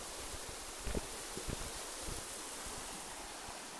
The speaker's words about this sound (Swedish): Och just nu så strömmar det rejält med vatten.